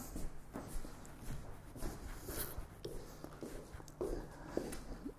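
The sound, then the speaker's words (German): Soft, steady footsteps walk into the living room at an even pace, with light shuffling and scuffing mixed in. The steps stay fairly quiet, with no talking. “So, jetzt gehe ich, zum, jetzt gehe ich ins Wohnzimmer.”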